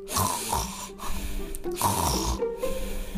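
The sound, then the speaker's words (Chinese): Heavy, rasping snoring from a wolf sleeping under a big tree on green grass: two long, loud rumbling snores in a slow rhythm, separated by a short breathy pause, with no talking. “狼吃饱了之后，心满意足地离开了山羊家，来到绿草地上的一棵大树下，躺下身子，开始呼呼大睡了起来。”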